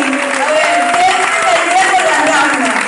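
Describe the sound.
An audience applauds steadily for about three seconds, a dense, even wash of clapping at constant loudness, with a few voices calling out underneath.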